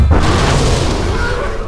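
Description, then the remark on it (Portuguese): A single deep, heavy boom as Gandalf, facing the Balrog, strikes the stone bridge with his staff, then a loud rumbling roar sustains and slowly decays, with no voices. “Neste momento, Gandalf levantou o cajado e, gritando bem alto, golpeou a ponte.”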